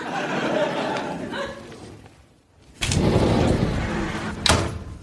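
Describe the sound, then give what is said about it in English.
A door in a haunted house slides with a rumbling scrape, goes quiet briefly, then moves again with a louder grinding sweep before banging shut near the end. “oh, isn't that just like a haunted house? Doors moving around, preventing escape.”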